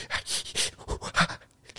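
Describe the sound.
A voice imitates the rapid, breathy panting gasps a man makes when he gets in a cold shower, about seven sharp huffs in quick, uneven rhythm, fairly loud with no other talk.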